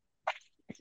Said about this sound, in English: I'm going to crack open a beer to calm myself down.